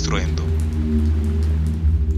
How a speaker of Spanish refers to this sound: la lluvia era real. Aún caía y sucedían uno tras otro los relámpagos